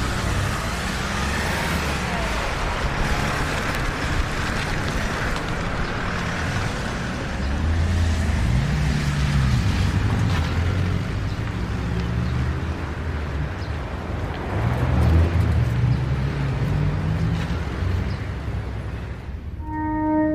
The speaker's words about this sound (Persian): عقب یه ون سوار میکنن مسئول پرونده هم عقب میشینه اصلا خانی پشت فرمون میشینه ماشین حرکت میکنه